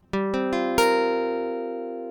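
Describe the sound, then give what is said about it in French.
A sustained chord builds from four struck notes in quick succession, the last and highest entering bright on top as a major seventh in the high register, then the whole sound rings out and slowly fades, with no voices. “Alors, voilà où se trouve la septième majeure, qu'on va entendre ici dans les aigus.”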